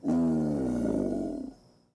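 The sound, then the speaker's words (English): A single deep, rumbling male alligator bellow announcing its territory, loud, holding a throaty growl for about a second and a half before trailing off into silence. “Male alligators bellow to announce their territory.”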